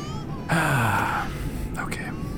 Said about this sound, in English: Well, I know, but there's like even a baby crying. I mean, we're not the loudest people on this plane by any means.